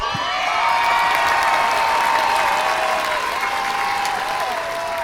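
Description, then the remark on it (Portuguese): A crowd applauds steadily for about five seconds, a dense, even wash of clapping that stays loud from start to finish with no voices over it; the applause is for a former listener of the month who has just become a father, and for his child. “Salva de, salva de palmas aí pra ele, e pra criança.”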